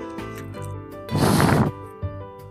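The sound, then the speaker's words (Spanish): A single burst of breathy wind noise rushes in for about half a second over a low steady hum, then cuts off. Someone is blowing into the call microphone of a Realme C3 smartphone during a microphone test. “Soplo al micrófono del hablar por teléfono.”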